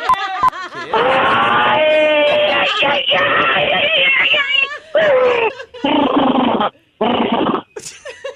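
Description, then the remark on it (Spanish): A person vocally imitates a giraffe giving birth with loud, strained, wavering animal-like groans and yowls in several long bursts, broken by short gaps and ending in a brief squeal. “A ver, necesito escuchar cómo sonaría una jirafa pariendo.”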